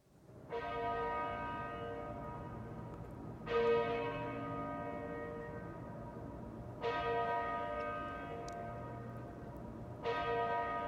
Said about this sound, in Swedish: låten heter …. Tar och lyssnar